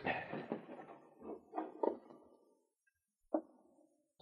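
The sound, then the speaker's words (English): A wooden partition at the back of a closet rattles and scrapes as it is tugged by a small handle and slides back over a couple of seconds, then after a short silence two sharp wooden knocks ring out. “He tugged a moment, and then the wooden partition slid back.”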